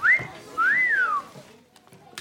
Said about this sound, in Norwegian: Når Sander kommer bort til pulten til Hugo, legger han mjølka på pulten og plystrer mot ham.